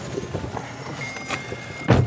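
A steady low hum inside a dusty, falling-apart Chevrolet Agile car being driven, with a few light metallic jingles of keys and a sharp thud near the end.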